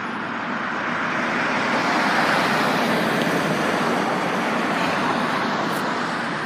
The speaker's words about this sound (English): I know I just love hearing traffic for some reason and so that's that's kind of it.